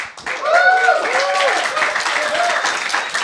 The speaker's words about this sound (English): And we've just been joined in the I Love MMA corner uh, by Paddy Holohan. A round of applause, please, for Paddy.